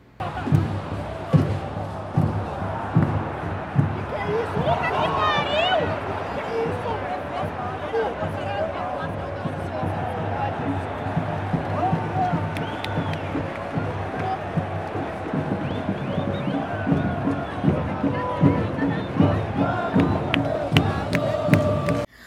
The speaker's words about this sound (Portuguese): A torcida ia gritando mais alto a cada momento que chegava perto do gol era mais tenso.